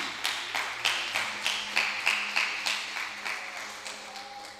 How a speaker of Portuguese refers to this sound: Se você crer, dá uma salva de palmas a Ele.